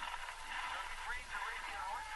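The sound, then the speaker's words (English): A man's television, just switched on, plays steadily, its muffled, tinny voices carrying at low volume, continuous with no pauses for the whole moment. “I hear his TV switch on.”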